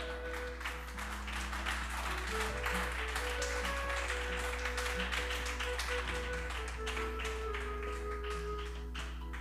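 A crowd applauds the Lord, clapping steadily and densely for several seconds, a continuous wash of many hands over a sustained low musical hum with held organ-like tones beneath.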